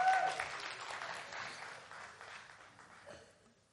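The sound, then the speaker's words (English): An audience of women claps for their husbands in a steady, dense patter of applause that starts strong and gradually fades over a few seconds, with no voices standing out. “Women, you should be clapping for your husbands right now.”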